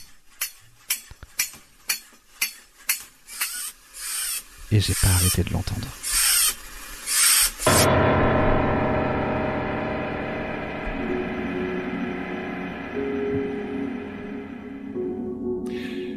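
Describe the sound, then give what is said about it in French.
A wind-up toy monkey clashes its tiny cymbals in a quick, steady run of bright metallic clinks, then louder bursts give way to a sustained droning tone. A voice speaks briefly. “J'ai l'impression que j'aurais roulé un petit truc, j'aurais un bout de tissu, et que je l'aurais mis entre les cymbales.”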